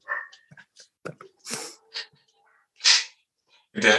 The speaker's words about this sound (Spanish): ¿Se escuchan mucho los perros, ¿no? No, se escucha un poco, pero es normal.